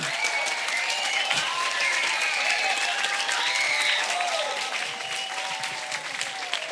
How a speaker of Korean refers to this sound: 이렇게 박수를 또 치다 말고 치다 말고 이러면